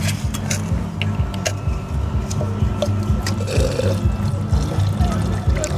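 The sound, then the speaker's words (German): Water is emptied out of a crushed-ice container, pouring steadily for several seconds, a continuous splashing gurgle with occasional dripping, and no talking. “muss auch immer mal ähm, aus, aus den Crushed Eis äh, Behälter das Wasser ausleeren.”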